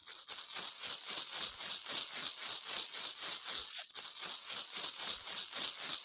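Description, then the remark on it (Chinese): A traditional instrument, a rattle made of fruit shells (not seashells) tied together in a string, is shaken in a steady, even rhythm, giving bright, dry, hissing clatters in regular pulses throughout, with a brief break midway and no voices. “哎，这个就是它很像那个呃壳，然后 贝 绑成 壳吗 一串，不是贝壳，不是贝壳，它是果子的壳，然后绑成一串，是吗？”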